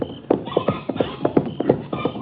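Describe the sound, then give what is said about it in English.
Steady clip-clop of the hooves of a horse taken from a ranch barn, a brisk run of hollow knocks at an even walking pace that stays fairly loud throughout, with no voices. “I got charcoal out of the trailer, and the sheriff got a horse from the ranch barn.”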